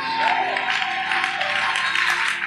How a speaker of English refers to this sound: Clap your hands and give Jesus a shout of praise.